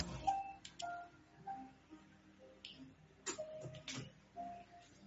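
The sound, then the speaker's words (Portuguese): An electric fan being switched on: a series of sharp clicks and short electronic beeps from its controls, with faint background noise and no talking. “eu esqueci de ligar o meu ventilador ali.”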